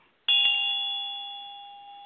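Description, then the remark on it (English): A single bright ritual bell, rung during a ceremonial consecration as the pentacle is elevated at the north station, rings out clearly, its pure metallic tone sustaining and slowly fading over a couple of seconds, with no voices present. “moves to the north station and elevates the pentacle as Vine rings the bell.”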